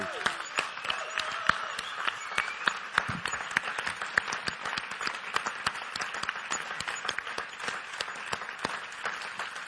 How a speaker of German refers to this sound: Und dann möchte ich dir mal einen riesigen Applaus geben für deinen sensationellen Job, den du machst.